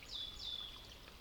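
A soft, steady wash of flowing water from a small forest brook, with a couple of thin, high bird chirps trilling over it; quiet and continuous, no voices.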